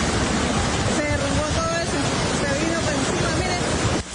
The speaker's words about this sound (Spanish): las fuertes lluvias han causado emergencias en diferentes sectores de Cúcuta y Villa del Rosario, donde algunas calles quedaron inundadas. Un río totalmente